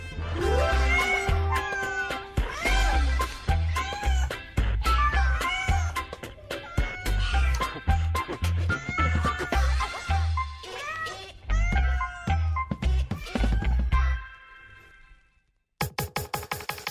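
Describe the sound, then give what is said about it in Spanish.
Loud cat meowing repeats almost without pause for about fourteen seconds, the drawn-out, wavering cries overlapping in a busy stream before stopping abruptly. “Los gatos.”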